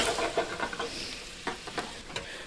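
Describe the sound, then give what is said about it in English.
Shallots sizzle steadily in a pan over slightly lowered heat, softening and starting to turn clear, a bright crackling hiss punctuated by several sharp scraping clicks as they're stirred. No one speaks. “Okay, so the shallots are um, starting to get clear.”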